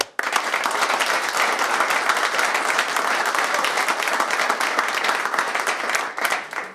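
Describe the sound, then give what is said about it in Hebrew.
Steady, dense audience applause for a large evening Kabbalah study group fills the whole stretch at a loud, even level, a wash of overlapping claps with no voices standing out, fading off right at the end. “תנו להם מחיאות כפיים בבקשה.”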